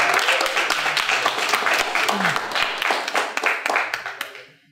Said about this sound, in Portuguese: Olha a eficiência desse, desse senhor aqui. Uma salva de palmas, olha.